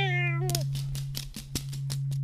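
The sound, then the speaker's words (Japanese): Mrs. Watson's black cat gives one drawn-out meow that bends downward at the end, followed by a series of light, evenly spaced clicks over a low, steady hum. “ウォーソン夫人の黒猫”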